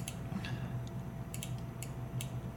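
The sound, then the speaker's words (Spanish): A Nissan electric car's proposed pedestrian warning sound of several tones: a low, steady humming tone with a few sharp, high ticks scattered over it, fairly quiet and with no voices. “Vas a escuchar primero el que Nissan propone. Son varios tonos.”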